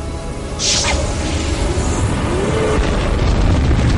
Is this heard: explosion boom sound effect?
yes